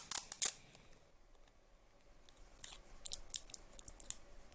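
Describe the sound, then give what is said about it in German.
Tesafilm adhesive tape being torn and pressed onto a battery cell, together with a temperature sensor: a few sharp crackling rips at the start, a quiet pause, then a cluster of short crinkly snaps, with no talking. “Da machen wir jetzt ganz einfach wieder Tesafilm drauf.”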